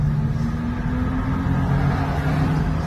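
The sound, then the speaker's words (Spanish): A loud, steady engine roar fills the whole stretch, a deep droning hum with a strong low rumble from sports cars, including a Lamborghini, overtaking across a solid line on a road. No voices are heard. “Pero están aquí con coches deportivos.”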